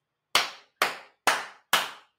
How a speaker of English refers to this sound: Y'all should be clapping.